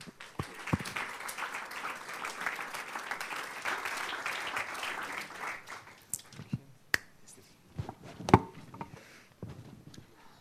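Warm audience applause welcoming a guest onto the stage for an interview, a dense wash of clapping for about six seconds that thins out into a scattering of sharp individual claps before fading.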